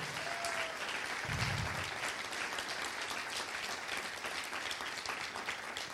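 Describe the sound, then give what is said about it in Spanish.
A church audience applauds the Lord during a sermon, a dense wash of many hands clapping at a consistent loudness for the whole stretch, with no voices standing out. “Den un aplauso al Señor si usted lo cree.”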